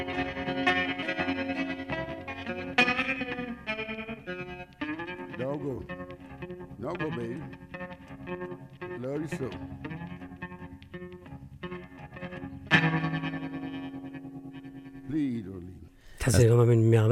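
An electric guitar with a warm, twangy amp tone and springy reverb plays sustained notes and sliding bends, each ringing out with a lingering, drippy tail; no voices.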